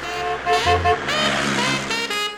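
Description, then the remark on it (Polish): A vintage car engine, one of a dozen or so 1970s-era cars such as Volgas, Syrenas, Wartburgs and Maluchs used on a historical film shoot, runs for a couple of seconds, its buzzing, harmonic drone shifting in pitch as it revs with no voices present. “Mieliśmy kilkanaście naszych samochodów z epoki, cudownej urody, wołgi, syreny, wartburgi i maluchy”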